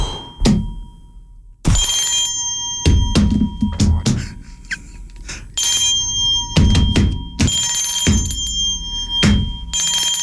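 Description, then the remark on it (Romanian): A small bell is struck repeatedly at an uneven pace in a studio, each loud metallic hit followed by a bright, sustained ringing tone that overlaps the next strike. No voices. “Uh, deci, ca de obicei, uh, spre deosebire de alte chestii, mărimea clopotului nu contează și asta e foarte important.”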